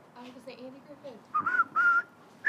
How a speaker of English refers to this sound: If I were to start whistling, this and and and, and, and is imagining black and white.